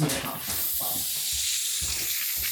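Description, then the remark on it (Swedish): A steady fizzing hiss from an opened cola bottle as cola is poured, carrying through the whole stretch, bright and continuous, with soft low thumps and faint murmuring underneath. “Om det här ljudet här. Oh. Oh. Ja, det ser vi fylla på. Oj, oj, oj. Här kommer lite cola ja.”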